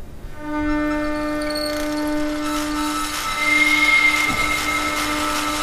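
An electric motor whirs up to speed and keeps running with a steady humming whine full of overtones, the electric current becoming audible as the motor starts turning. It grows louder partway through, and one low tone drops away near the end.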